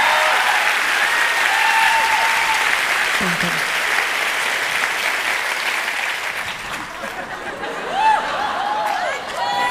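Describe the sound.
A live audience claps steadily for several seconds, a dense wash of applause with scattered chuckles and a few whistle-like tones, while a voice briefly says a word of thanks.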